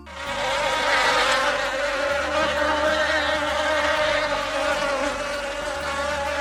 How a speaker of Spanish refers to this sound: Mira, ahora entran las moscas. Cuidado que no vayan a la comida, ¿eh?